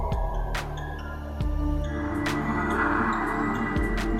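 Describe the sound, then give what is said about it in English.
An ominous, low droning sound effect with a breathy, airy swell rising midway, like someone breathing, steady and fairly loud with no voices. “Sounds like someone breathing.”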